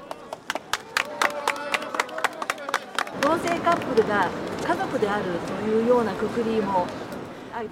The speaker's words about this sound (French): En novembre 2022, devant le tribunal de Tokyo, des militants et militantes LGBT déroulent une bannière sur laquelle on peut lire en japonais En avant pour obtenir l'égalité du mariage. Autour d'eux, leur soutien applaudissent.